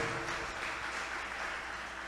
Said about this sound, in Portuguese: Toda honra e toda glória seja dada ao nosso Deus, que ela superou você pode aplaudir o Senhor nessa noite pela vida dela.